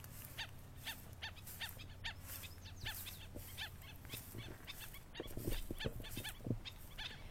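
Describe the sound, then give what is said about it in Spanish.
A chorus of birds sings outdoors in the Medio Mundo y Dahuao protected natural area, with many short, high chirps and whistles repeating throughout over a low, steady background hum, a few louder calls near the end. “Parecen violinistas de una orquesta sinfónica y en conjunto con las aves ofrecen un relajante concierto.”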